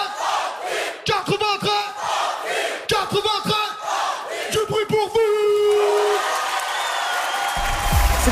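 A live concert crowd at the Move Live Show at the Maison de la Radio in 2017, during a live acoustic performance, cheers and shouts in bursts of loud, rhythmic yelling, then swells into a sustained roar of cheering and whistles toward the end.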